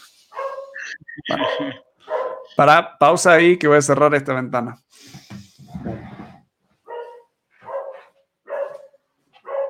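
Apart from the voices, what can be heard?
dog barking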